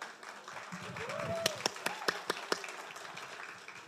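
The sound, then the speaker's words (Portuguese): Scattered audience applause for the speaker's wife as she stands: a handful of sharp, irregular hand claps build and fade over a couple of seconds, with murmuring voices underneath. “E se vocês quiserem bater palma, fique à vontade.”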